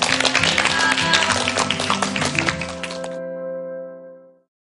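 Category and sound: crowd, audience applause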